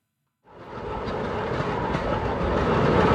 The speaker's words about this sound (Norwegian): bruker litt ekstra krefter for å få dressinen i gang